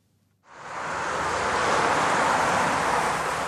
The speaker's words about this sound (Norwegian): som du hører, så er det jo eh, ganske sterk trafikk.